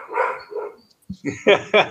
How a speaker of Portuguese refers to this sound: Ó, tem um cachorro aí que é bem metal, hein, cara?